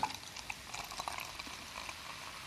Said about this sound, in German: So, wir schenken ein. Boah, das riecht, das riecht richtig lecker nach Sommergetränk.